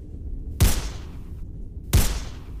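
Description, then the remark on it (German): Two loud video game gunshots fired at a character in the game, spaced over a second apart, each a sharp crack with a booming low thud and a fading tail, over a faint steady background hum. “Oh komm, ich schieß ihn ab. Ich schieß ihn ab. Dann, dann nimm die Waffe.”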